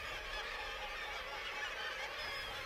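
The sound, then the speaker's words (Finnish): A dense, continuous chorus of kittiwake seabirds calling over the sea and in the air at their colony on a cliff of a long-abandoned Arctic Ocean trading post, some fishing, some floating on the water, many overlapping raucous cries blending into a steady, bright clamour with no pauses and no voices. “Muutamat ovat kalastushommissa, mutta useimmat vain ilman aikojaan huutavat ja häiläävät merellä tai ilmassa.”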